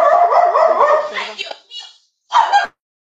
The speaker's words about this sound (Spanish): Perritos.